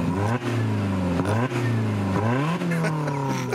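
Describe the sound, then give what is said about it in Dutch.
The engine of a Toyota Yaris being driven on a test drive revs up loudly, its pitch climbing and dropping several times as it accelerates through the gears, with no talking over it. “En we rijden in de Toyota Yaris.”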